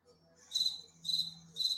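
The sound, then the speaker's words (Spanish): Crickets chirp in three shrill, regular bursts about half a second apart, clear against a faint low hum, with no voices. “Pregúntenme, solsticio del invierno, grillos”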